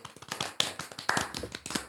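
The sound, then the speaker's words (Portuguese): A burst of hand clapping from a small group, many quick overlapping claps forming a steady patter of applause, moderately loud. “Vocês batem sempre palmas?”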